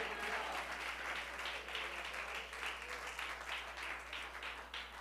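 An audience applauds steadily, a dense wash of many hands clapping at a constant level for several seconds, with no voices standing out above it.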